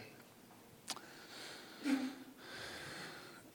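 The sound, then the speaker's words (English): A single sneeze, a sharp burst followed by a short breathy release, faint, with no talking around it. “God bless you.”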